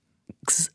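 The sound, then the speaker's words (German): A single loud sneeze: a short catch of breath, then an explosive, hissy burst that stops abruptly. No talking during it. “Gesundheit, siehst du jetzt?”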